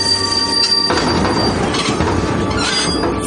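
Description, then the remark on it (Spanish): A train brakes to a stop at Nizhneudinsk station, 450 kilometres from Irkutsk, steel wheels squealing in long high-pitched tones over a loud, steady rumble and rattling of the cars. No one speaks. “El ferrocarril se detiene.”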